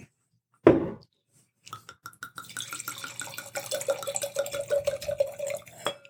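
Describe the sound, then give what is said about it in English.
A sharp clink of glass, then after a brief pause a steady pour of Malbec wine from Mendoza into a glass, the gurgling tone rising as it fills. No one speaks. “I'm going to keep that one because it's a little more than I wanted to pour for you.”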